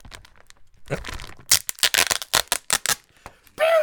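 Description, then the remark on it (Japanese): A plastic box pack holding 1 kilogram of Kishu Nanko pickled plums (umeboshi) is pried open, a quick series of sharp crinkling cracks and tearing snaps, followed by a short vocal sound at the end. “はいじゃあ開けますよ開封します”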